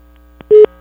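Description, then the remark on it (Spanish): A telephone busy signal after the other party hangs up on a prank call: a short, steady electronic beep cuts off, then a second beep starts, sounding through the phone line after a faint click. Nobody speaks. “¿Por qué me cuelga?”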